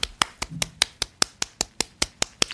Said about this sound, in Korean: 제가 박수 막 네, 마구 친거 들, 들으셨죠?